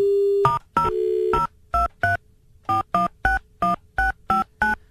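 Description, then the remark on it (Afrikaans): A short steady dial tone hum gives way to a quick run of about eleven touch-tone keypad beeps in an uneven rhythm, clear, as a phone number is redialed to get a better line, with no talking. “Dink gou daaraan, gaan kyk of ek vir ons 'n beter lyn kan kry. Ek sit neer en dan wag.”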